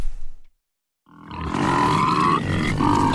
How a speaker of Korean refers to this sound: 아이고, 이게 뭐야? 돼지가 책방에 나타나다니 다쳤어? 어, 어, 돼지가 피투성이가 되어서 책방을 휘젓고 있다고. 저, 저, 저 돼지가 화살을 맞았네.